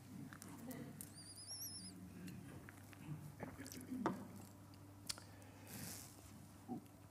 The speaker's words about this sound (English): Before I read, let me take a sip, please.